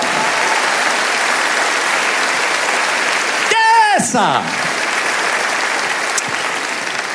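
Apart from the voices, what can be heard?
audience applauding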